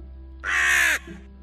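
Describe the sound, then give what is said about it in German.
A single harsh, raspy raven croak lasting about half a second, loud and rough-edged, followed by a brief faint rumble over a steady low hum. “Er richtete sich auf und begann mit dem Käse im Schnabel zu krächzen.”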